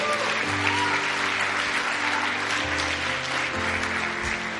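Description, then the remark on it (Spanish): A church audience applauds for the Lord, loudly and steadily for several seconds, a dense wash of clapping from many hands, with sustained low keyboard chords holding underneath. “Hay alguien que puede darle un fuerte aplauso al Señor.”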